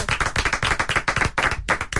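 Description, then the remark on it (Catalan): A small group clapping live in a studio, natural rather than canned applause: a steady patter of overlapping sharp claps for two seconds, sounding thin and sparse rather than like a full crowd's applause. “Que maco que és un aplaudiment natural, eh?”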